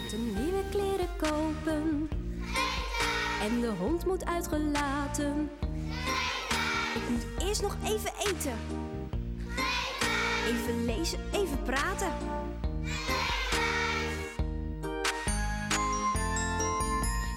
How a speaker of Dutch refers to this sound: Ehm, we gaan gewoon een ander nummertje voor jullie draaien. Wacht even hoor. Hebben we nog een ander nummertje voor de kinderen? Ja, deze.